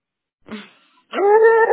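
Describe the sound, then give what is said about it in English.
A small dog gives a short, soft yip, then after a brief pause lets out a longer, loud whimpering whine that holds steady and rises slightly before stopping. “I'm really trying to work with this dog because God knows, like, if anything happens, I just, yeah.”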